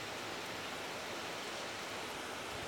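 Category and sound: nature, heavy rain falling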